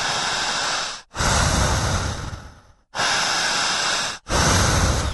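Loud, forceful deep breaths, each long rushing inhale or exhale separated by brief pauses, about four strong breaths in steady succession with no talking, done as a guided deep-breathing exercise.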